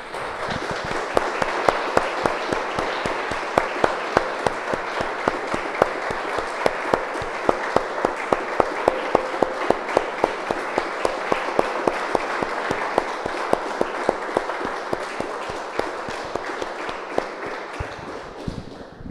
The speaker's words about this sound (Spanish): Damos un aplauso, hermanas, al Señor.